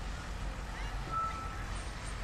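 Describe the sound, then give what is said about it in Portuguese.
A city bus rumbles in at a stop, arriving on time, its low engine drone steady, with a faint high brake whine rising briefly over the traffic noise. “Tenho um autocarro para apanhar.”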